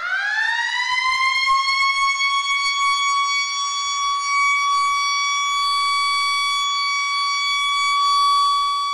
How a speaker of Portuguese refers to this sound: Tocou o sinal para o começo da primeira aula.